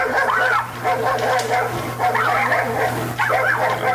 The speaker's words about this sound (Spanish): Puro pleito de perros, maestro.